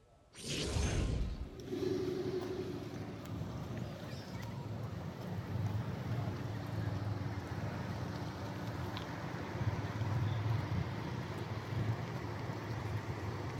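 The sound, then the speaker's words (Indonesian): President Joko Widodo's presidential sedan rolls slowly over a damaged road on Jalan Terusan Riakudu in Lampung, Indonesia, giving a steady low rumble of engine and tyres that fills the whole stretch after a short loud whoosh at the very start. No one speaks. “Berdasarkan video yang diterima dari fotografer Presiden Jokowi, Agus Suparto ini, mobil Presiden melaju dengan kecepatan rendah melewati jalanan rusak di Jalan Terusan Riakudu”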